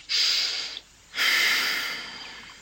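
Two airy nasal inhalations during a breathing exercise of two natural breath cycles through the nose. Each is a soft hissing rush of air lasting under a second, separated by a brief pause, with the second breath slightly longer and fading gradually.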